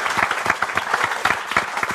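Steady applause from an audience, many hands clapping at once in a dense, crackling wash that holds an even loudness throughout, with no voices standing out.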